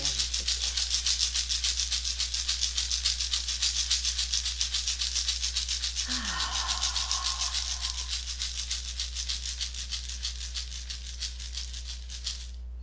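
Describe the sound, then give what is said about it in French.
A shamanic rattle shaken during a guided meditation in a fast, steady, unbroken rhythm, a bright hissing clatter that holds for the whole stretch and eases slightly at the end, over a faint low hum. “Laissez le son et le travail du Haché chamanique libérer tous les parasites qui auraient pu se présenter dans votre sein.”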